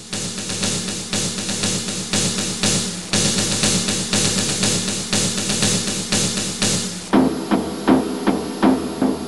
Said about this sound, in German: Der Trommler, wie der klingt, das hören wir aber trotzdem uns erstmal an.